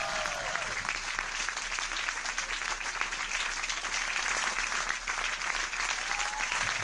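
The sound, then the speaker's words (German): Sustained applause from a sizable audience, a dense, steady wash of many hands clapping at a fairly even loudness for several seconds, with no voices standing out. “Den Applaus nehmen wir noch mit.”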